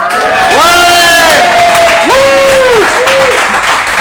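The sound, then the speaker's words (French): A live audience of about 150–200 people at the bar Le Petit Laurier, 364 rue Laurier, cheers loudly during a show taping, with several voices letting out long rising and falling whoops over a dense, steady wash of crowd noise and clapping. “enregistré devant le public au 364 rue Laurier, soit le bar Le Petit Laurier. Oh oui! Alors, c'est qui qui est dans la salle ce soir?”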